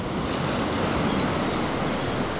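Loud, steady roar of surf breaking on the beach by the seaside boulevard in Scheveningen, mixed with strong gusting wind buffeting the microphone, a dense continuous wash of noise with no voices.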